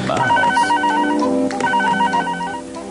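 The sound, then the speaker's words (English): A Philips multi-purpose screen phone rings loudly with an electronic warbling trill, two bursts of rapid pulsing tones separated by a short pause, over a faint background hum. Nobody speaks. “And to stay in touch, I'll need the latest in multi-purpose phones.”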